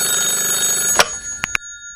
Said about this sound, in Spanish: Estos teléfonos viejos levantándome tan temprano, parece la sirena, los bomberos, la campana, A ver quién será, chico.